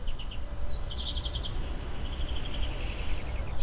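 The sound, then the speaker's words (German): Birds chirp and trill outdoors on a terrace in quick repeated bursts over a steady low rumble of background noise, with no one speaking. “Für mich sind zum Beispiel gerade die Geräusche sehr präsent, da ich gerade auf der Terrasse sitze und die Vögel zwitschern und in der Ferne andere Geräusche zu hören sind.”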